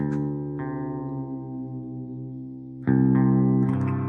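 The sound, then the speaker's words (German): An electric guitar rings out with effects-laden, sustained notes: a low string is plucked and left to decay, then fresh plucks come louder near the end as the guitar is retuned to Drop D. “ach ja, es gibt auch verschiedene Tunings halt, ne?”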